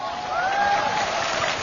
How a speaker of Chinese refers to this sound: 我们以热烈的掌声欢迎领导光临指导。